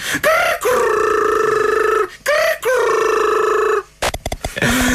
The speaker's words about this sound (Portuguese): o som que o jogo fazia quando um professor nos apanhava em flagrante a fazer asneira